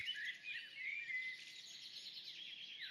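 Continuous high-pitched bird chirping and twittering from several birds outdoors, fairly faint, heard through open windows during a recording, with no voices present.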